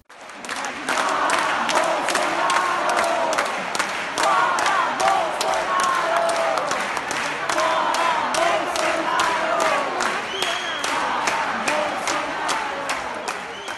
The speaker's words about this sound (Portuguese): A plateia gritou fora Bolsonaro por cerca de um minuto e aí tem um trechinho para você conferir.